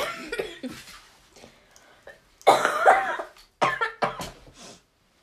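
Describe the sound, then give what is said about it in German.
A person coughs repeatedly at close range: a few smaller coughs, then two louder, harsh bursts after a short pause, with some throaty rasping between them. No one speaks. “Hast du, sag, mal, hast du Hustenbonbons oder sowas?”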